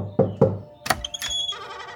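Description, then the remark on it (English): Senator Henry Clay knocks on President John Tyler's office door: two heavy, hollow knocks on a wooden door, spaced evenly, followed by a sharp latch click and a brief creaking, ringing sound as the door seems to open. “He takes a deep breath and knocks on the door.”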